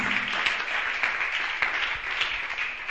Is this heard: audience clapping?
yes